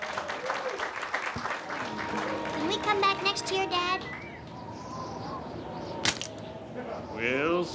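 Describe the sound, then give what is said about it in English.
A crowd at PianoFight claps steadily throughout at the end of a show, a dense patter of applause mixed with scattered cheers and whoops, with a few voices calling out over it and one sharp burst near the end. “Round of applause for them too.”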